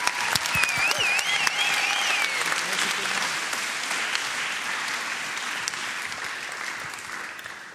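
An audience applauds steadily, dense clapping with a few cheers and whistles near the start, holding fairly loud throughout before easing off slightly toward the end; the audience at a church blessing service applauds a young man.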